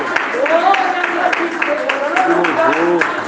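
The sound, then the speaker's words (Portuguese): A church audience at a Christian worship service claps hands to glorify God in a steady, dense patter, with voices calling out and singing over the top. “Os irmãos podem sentar, desocupa suas mãos e glorifica Deus com as palmas, com alegria, glória a Jesus.”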